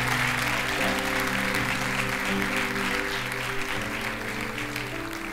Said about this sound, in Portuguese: Você pode aplaudir ao Senhor? Pode aplaudir mais forte ao Senhor?